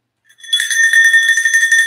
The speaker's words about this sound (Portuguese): É, o sininho da vaca.